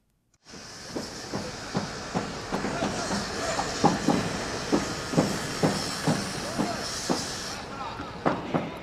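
A subway train rumbles through an underground station, its wheels clacking in a steady rhythm over a constant hiss of rushing noise that fills the space, loud, ending abruptly.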